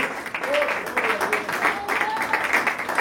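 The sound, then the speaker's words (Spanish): A church audience applauds God steadily and fairly loudly during a service, dense overlapping claps filling the space, with a few voices calling out faintly underneath. “Y le da un aplauso al que vive por los siglos.”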